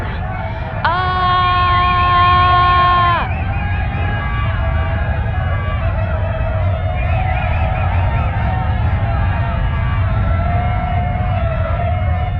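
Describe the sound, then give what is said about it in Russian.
A large crowd shouts and chants together in a loud, continuous roar, with one long sustained cry rising above the mass of voices near the start. “Все люди вместе.”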